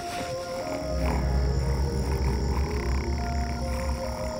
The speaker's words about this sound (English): The odd little gourds started purring. The sound made my guts lurch.